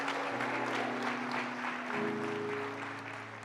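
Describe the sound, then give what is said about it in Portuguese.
A church audience applauds steadily for a few seconds with dense clapping, while a sustained organ or keyboard chord holds underneath and shifts pitch midway. “Ah, Deus merece um aplauso, gente.”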